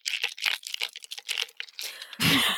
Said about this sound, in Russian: Что это такое? Старба... Что стаканчик из Старбакса. Айс латы из Старбакса со льдом вот так.